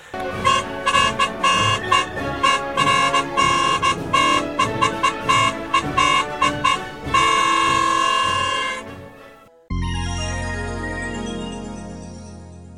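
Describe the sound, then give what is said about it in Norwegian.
A flute plays a bright, lively tune of short repeated notes, holds one long note, then breaks into a different passage with falling tones, fairly loud with no talking, as practice for a 17 May parade. “og så må jeg finne fløyta mi og øve litt mer til 17. mai-toget mitt.”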